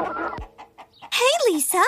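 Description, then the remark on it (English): A gray hen clucks: a few soft, short clucks at first, then a burst of loud, rising-and-falling squawky cackles. “Not being able to keep this bit of gossip to herself, the gray hen flew out of her bed to tell the other hen friends.”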